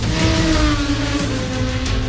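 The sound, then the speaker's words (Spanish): Racing motorcycle engines scream loudly and continuously, a dense high-pitched whine with shifting revs and no voices, as motorcycles ride on the Jerez circuit in Andalusia, Spain, during the Spanish Grand Prix of the World Motorcycling Championship. “Han comenzado las motos a rodar en el circuito de Jerez.”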